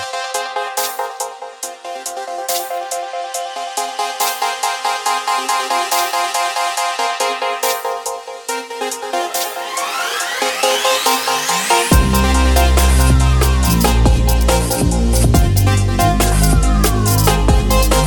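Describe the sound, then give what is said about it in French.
A Memory Moog synthesizer plugin demo played from the ICA Multimédia website: dense, buzzy polyphonic chords with a rising filter sweep, then a heavy pulsing bass line enters and the sound grows louder and saturated. No one speaks. “si vous êtes euh, fan de Moog, et que vous voulez euh, un memory moog dans un plugin”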